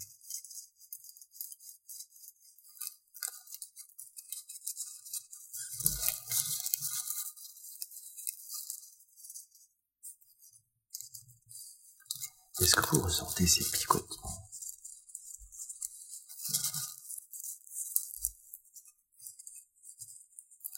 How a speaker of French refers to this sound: Est-ce que vous voulez entendre les feuilles de la forêt, la forêt d'été, en automne?